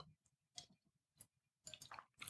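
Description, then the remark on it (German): A sip of Riesling wine followed by wet mouth sounds and gulping, a few short slurping and swallowing bursts with brief quiet gaps, fairly quiet and with no talking. “Habe einen kräftigen Schluck genommen.”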